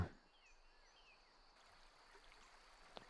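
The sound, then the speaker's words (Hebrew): Soft, steady rush of flowing stream water, quiet and continuous, with faint bird chirps scattered in the background and no one speaking, played as a backdrop for a guided meditation. “יש לנו צילים של נחל זורם.”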